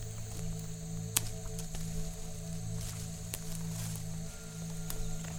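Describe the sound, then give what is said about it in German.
Soft, squelching footsteps of the Flick on moss soaked with rain water, a handful of irregular squishy steps over a steady low hum, with no voices. “Und wenn der Flick drauf steht, gibt es ein kleines Geräusch. Ein bisschen, wie wenn der Boden ganz genüsslich würde schmatzen”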